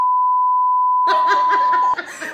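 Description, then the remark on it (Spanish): A steady, loud censor bleep put over a name holds for about two seconds, and laughter breaks out halfway through, continuing briefly after the tone cuts off. “No, le puedo poner un pito entonces.”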